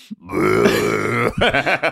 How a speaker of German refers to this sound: wollte gerade leise aufstoßen oder so.